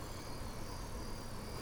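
Night-time rainforest ambience in Costa Rica of dense insect chirping, a steady, unbroken wash of high-pitched buzzing and trilling layers at an even, moderate loudness, with no voices.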